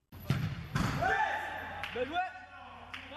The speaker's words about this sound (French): Le ballon qui fait trembler les filets, le bruit des chaussures sur le terrain, des chasubles divisant les équipes, voilà ce que l'on peut découvrir dans le foot en salle.